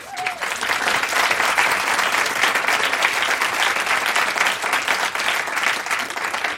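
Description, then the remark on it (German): A live audience claps steadily and loudly for several seconds, a dense, even patter of many hands with no voices standing out, holding at full strength throughout. “Ihr hört es, Publikum war auch dabei.”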